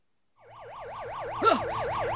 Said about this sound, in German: Warum hast du mir nicht gesagt, dass ihr eine Alarmanlage habt?